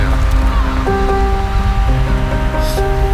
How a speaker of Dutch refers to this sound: Ja, dus de, ja, de, de zee, mist, horens, uh, meeuwen. Dat zijn de geluiden van, eh, van de boulevard.